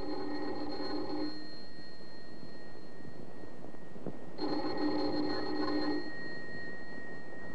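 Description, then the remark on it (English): A doorbell rings twice in long, steady buzzing bursts, about a second or more each, separated by a few seconds of quiet room tone. Fairly loud, with no voices. “Let's begin this tale with the ringing of a doorbell.”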